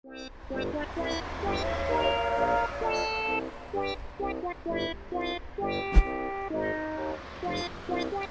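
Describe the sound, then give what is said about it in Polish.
A train horn blares in a string of loud, sustained blasts that shift between pitches over a low rumbling background, with a sharp clack near the end. “Strzeż się pociągu! Strzeż! PKP!”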